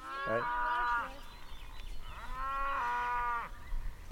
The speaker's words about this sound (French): C'est les vaches qui s'énervent.